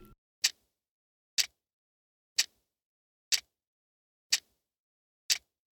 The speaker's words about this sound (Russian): Часы тикают, Консьержка храпит.